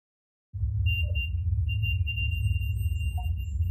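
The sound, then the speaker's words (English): A REM pod device's electronic alarm sounds after a brief silence, its high, steady tone pulsing on and off over a loud, constant low rumble. No one speaks. “So you hear the REM pod go off, and then you hear a little voice that says, that sounds like it says hide, but it's really hard to pick out.”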